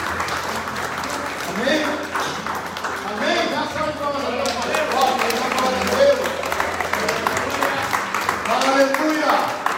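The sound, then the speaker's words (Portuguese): An audience in a church claps its hands in steady, sustained applause to God for about ten seconds, with raised voices calling out and talking loudly over the dense clapping. “de palmas a Deus. Que alegria.”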